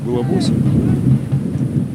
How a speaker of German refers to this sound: Ein Gewitter zieht auf und der schäumende Dnieper verfärbt sich dunkelgrün.